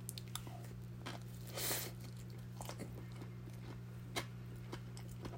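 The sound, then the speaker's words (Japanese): Chewing of a ham sandwich with mayonnaise and cucumber strips: soft, irregular bites and wet mouth clicks with a brief crunchy burst, recorded quietly over a steady low hum, no talking. “また咀嚼音がしますので。”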